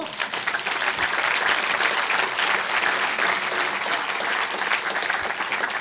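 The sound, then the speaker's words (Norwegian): A burst of steady applause from a small group, clapping densely for several seconds without pause, with no clear voices over it. “skal vi bare ta en liten applaus for det.”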